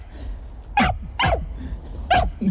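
A dog barks three times in short, sharp bursts with brief pauses between them, loud, over a low rumbling background and no talking.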